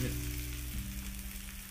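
Kumicchan-yaki sizzles steadily on a grill in Hiroshima, Japan, a continuous crackling hiss with no pauses, over a low humming drone throughout.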